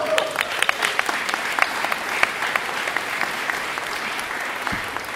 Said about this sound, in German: Ich weiß, es sind Leute hier von Fridays for Future. Applaus für Fridays for Future.